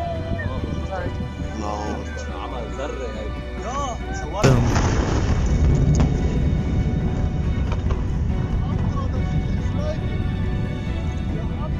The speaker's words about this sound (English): The current numbers show that at least 180 people were killed and well over 6,000 were injured in a blast that could be heard and felt all the way in Greece.